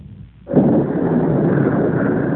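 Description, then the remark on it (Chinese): After a brief low murmur, a loud burst of thunder breaks in and rolls straight into a dense, steady roar of heavy rain that continues to the end, with no voices. “是听到外面声音很乱，大雨跟就下了四十多天。”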